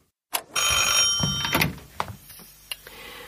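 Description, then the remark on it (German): A telephone bell in a radio drama rings loudly for about a second, a bright metallic jangle, followed by a few clicks and clunks like a receiver being handled. No one speaks. “ich habe wirklich viele Hörspiele gehört in meinem Leben, aber hier ist nun wirklich mit Abstand die beschissenste Stelle die ich je in einem Hörspiel gehört habe, wo telefoniert wird.”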